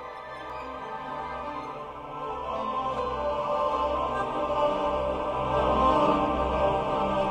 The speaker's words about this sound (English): That choral music sung by Trapped Ghosts is Whirlpool Galaxy M51A. Not literally. Like if you blasted off into space, you obviously wouldn't hear this. This sound is made by scientists taking real data and sonifying it, turning that data into sound.